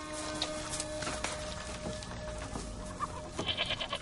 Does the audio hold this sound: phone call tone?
no